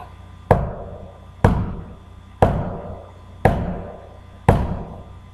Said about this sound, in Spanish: me llevé a mi perro a mi casa y a la noche siguió volví a escuchar los mismos ruidos, los mismos golpes, en la misma dirección.